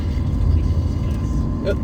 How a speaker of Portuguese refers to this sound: esse é o meu carro, cara. É o carro que eu tenho que desligar o ar-condicionado para conseguir subir o morro. Senão ele não, não aguenta. Tá na segunda marcha aqui sempre deixa com, com o cabelo em pé, cara.